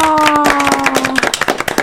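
A group bursts into quick, dense applause, many hands clapping in rapid irregular bursts with a steady tone held underneath at first, then the clapping thins into separate sharp claps.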